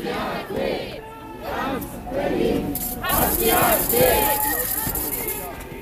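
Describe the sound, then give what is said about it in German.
A large protest crowd in Berlin chants the slogan "Ganz Berlin hasst die AfD" in unison, loud, rhythmic bursts of many voices shouting together, repeating with a steady cadence and a roar of crowd noise between phrases. “Und dann haben da alle so rumgebrüllt, ganz Berlin hasst die AfD.”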